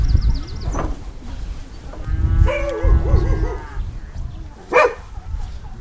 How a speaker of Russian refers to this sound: У дороги гуляют куры, вдали лает пес.